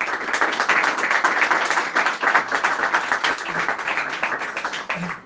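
Sustained audience applause for Rabbi Arush, a dense wash of many hands clapping steadily at fairly high volume for several seconds with no voices.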